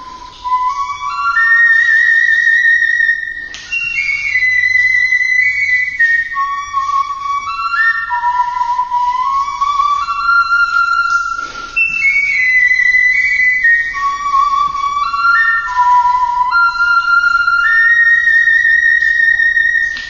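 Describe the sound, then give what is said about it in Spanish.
A bone flute-like prehistoric wind instrument, about 40,000 years old, plays a breathy, whistling melody of stepwise rising and falling notes, steady and fairly loud throughout, with no voices. “Entonces, eh, si te parece, eh, podríamos escuchar cómo suenan estos instrumentos con 40.000 años de antigüedad.”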